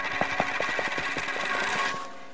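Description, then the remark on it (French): A dropped 1 yuan Chinese coin rolls along the ground with a rapid, steady rattle of small clicks and a thin metallic ring, then comes to rest against a tree after about two seconds. No voices. “Fais voir Oups Oh non, tu l'as fait tomber Elle roule par là, vite, viens”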